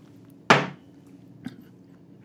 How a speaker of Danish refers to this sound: Eller, jeg synes at jeg sætter koppen måske lidt voldsomt ned.